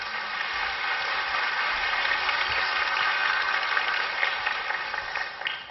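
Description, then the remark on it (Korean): Steady applause from a church audience welcoming their senior pastor, a dense continuous patter of many hands clapping at even loudness for several seconds, with no voices over it. “박수로 맞이하겠습니다.”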